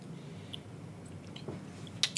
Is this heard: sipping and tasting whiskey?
yes